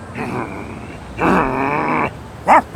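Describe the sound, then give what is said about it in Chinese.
A dog named Coco growls menacingly at a visitor who has come into the house, in two long, rough rumbling snarls, then lets out a short, sharp bark-like burst at the end. Loud, with no talking. “怎么有狗？好凶啊！”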